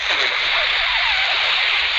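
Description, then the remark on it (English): A voice imitates TV static, producing a steady, loud, rushing hiss of white noise that holds for about two seconds without a break. “You don't get that scary 1.30 in the morning static on the TV anymore.”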